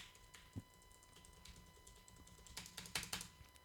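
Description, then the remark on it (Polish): Rapid, soft keystrokes patter on a quiet computer keyboard as keys are pressed as fast as possible, forming a quick irregular run of muted clicks with a few slightly sharper taps, fairly faint, with no voices. “Naciskam jak tylko mogę te klawisze dosyć szybko, a tu naprawdę jest to, jest to całkiem ciche, nie jest to uciążliwe, jeżeli chodzi o pisanie.”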